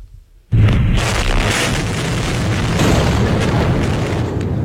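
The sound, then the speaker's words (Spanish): A sudden loud blast from bombing in a Ukrainian city during the war, in the early hours of the morning, erupts after a brief quiet moment, followed by a heavy, sustained rumbling roar that fills the space for several seconds, echoing across the city. “Ese era el sonido de esta misma madrugada”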